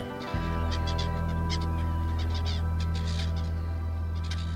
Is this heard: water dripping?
no